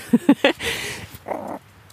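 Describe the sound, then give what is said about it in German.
Three quick, loud smacking chews from small animals eating mealworms on a scale, then a rustly stretch and one more muffled mouthful; no talking. “Man hört sie richtig schmatzen.”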